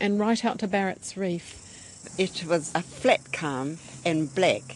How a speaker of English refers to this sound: We can hear the cicadas in the background, and we're on the point of your balcony now, overlooking the whole of Wellington Harbour actually